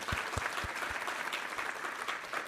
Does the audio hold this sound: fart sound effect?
no